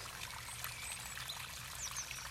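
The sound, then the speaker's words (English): Water trickles and burbles steadily at a low, distant-sounding level, heard from a tree-lined path, a continuous soft wash with no voices, holding even throughout the short stretch. “The poet hears water in the distance, and stopping himself from taking a break under an elm, he utters, The sound of water is worth more than all the poet's words.”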